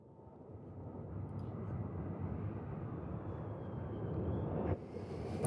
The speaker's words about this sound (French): C'est aussi un, avion que tu connais bien